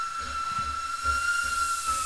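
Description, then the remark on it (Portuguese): The whistle of the Silver Arrow train blows one steady, high-pitched note through the whole clip over a layer of steam hiss, with soft low chugging pulses underneath at a regular beat. “O flecha de prata apita em resposta.”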